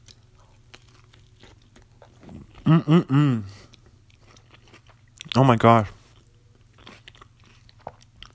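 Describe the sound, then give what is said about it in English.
Chewing of a frozen pizza topped with coleslaw and hot sauce right at the microphone, with steady wet clicks and soft crunches throughout, broken by a muffled appreciative hum and a brief exclamation from the eater. “Sorry, sorry if I'm chewing on the mic.”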